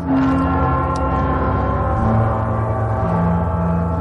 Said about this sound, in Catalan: Això són les campanes del, del castell del Sant Gral, el primer acte. Parsifal, última òpera de Wagner.